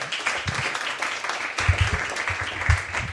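An audience applauds steadily for about three seconds, a dense wash of many hands clapping at a moderate, even loudness with no voices over it.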